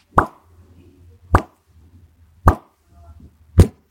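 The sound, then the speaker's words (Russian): Water drips in a steady, slow rhythm: four crisp plops spaced a little over a second apart, each sharp and clear, over a faint low hum. “Не пытка водой, а капелька воды когда.”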